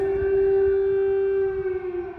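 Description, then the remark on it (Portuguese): Warning sirens sound in the evening, some hours after sunset, while a family is at home watching a film: a loud, steady wailing tone with rich harmonics, sustained throughout and dipping slightly in pitch toward the end, with no voices present. “soaram as sirenes.”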